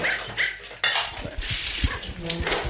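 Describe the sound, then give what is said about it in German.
A frying pan clatters and bangs in a chaotic scuffle as someone holding the pan is told to hand it over and leave a dog alone, with sharp metallic knocks and scraping throughout and the dog's agitated noises mixed in; no one speaks. “Geben Sie die Pfanne her, sind Sie denn verrückt geworden?”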